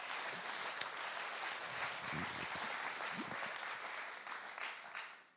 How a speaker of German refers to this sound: das verdient mal einen richtig fetten Applaus. Ich finde, da war so viel Gutes bei. Vielen Dank.